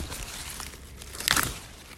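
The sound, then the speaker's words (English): A single short, crisp snap and tearing crunch of a slightly thinner rhubarb stalk being pulled from the plant, with a quiet outdoor background and no talking. “Let's get another one because that might be a bit thick. I'll give you a slightly thinner one, and it needs eating.”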